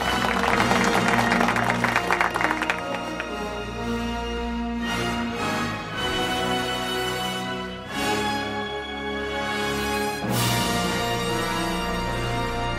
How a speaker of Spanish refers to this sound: Un aplauso para